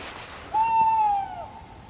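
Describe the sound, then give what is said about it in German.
A small owl gives one clear, drawn-out call that swoops up, holds a steady pitch, then trails off, heard alone against a quiet night background. “Das klang ein bisschen nach Käuzchen, aber.”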